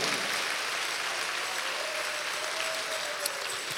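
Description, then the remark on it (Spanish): An audience claps steadily for several seconds as applause to God, a dense, sustained wash of many hands applauding together with reverberation, with no voices standing out. “Dale un aplauso a Dios por eso, hermano.”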